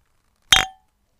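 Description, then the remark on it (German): A single bright clink of a drinking glass as it is handed over, its short ringing tone fading within a fraction of a second before silence returns. “Ich muss aber sagen, ja, wobei, ich muss erst aus dem Glas probieren. Gib mal das Glas.”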